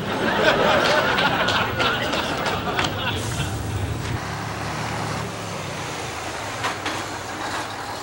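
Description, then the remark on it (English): Steady rumbling bus and traffic ambience with a low engine drone, scattered clicks and rattles, and indistinct voices murmuring underneath, loudest in the first few seconds before settling into a softer hum. “There was only one other black man on the bus.”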